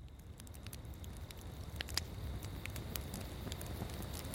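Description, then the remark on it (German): A campfire crackles steadily with scattered sharp pops and snaps over a low rumbling bed, fairly quiet, with no voices; a group of tired company employees sits around it after a day of hiking, north of San Francisco in late summer 1991. “Nördlich von San Francisco sitzt eine Gruppe erschöpfter Patagonia-Mitarbeiter um ein Lagerfeuer herum.”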